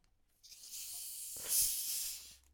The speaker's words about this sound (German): Und zwar öffne ich jetzt die zweite Flasche, ja, die zweite ähm, Sprite-Flasche, so. die wir gleich mischen werden.